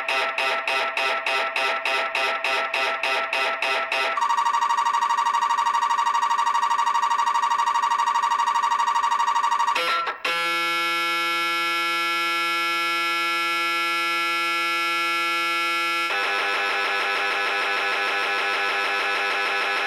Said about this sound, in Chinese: 我就在网上找了一段这个 MRI 的声音素材，给大家在这里播放一下。为了大家的耳膜健康呢，我把分贝啊调小了很多，大家就想象自己戴着耳塞吧。